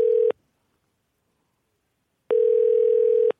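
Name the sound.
telephone ringback tone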